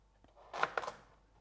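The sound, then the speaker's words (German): A knife cuts a carrot for soup in two quick, crisp crunches on a board, moderately loud, preceded by a faint tap, with no talking. “Jetzt fange ich schon mal an, die Karotte dazu zum Schneiden.”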